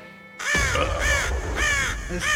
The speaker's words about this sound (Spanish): tiene que sonar el cuervo, ¿no?